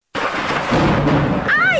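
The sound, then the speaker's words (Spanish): Loud thunder rumbles in a broad, rolling roar for nearly two seconds as the rains arrive, with a voice beginning to speak over it at the very end. “¡Esos truenos! Maestro, llegaron las lluvias y no hemos impermeabilizado el techo.”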